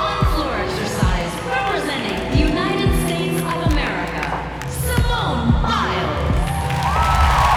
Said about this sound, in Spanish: Inmediatamente la ovación del público se hace sentir. La ovación de un público que tiene garantizado una presentación espectacular.